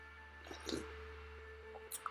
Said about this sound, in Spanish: Ah, se escuchó el, sorbete del cafecito con una taza que me regalaron mis sobrinas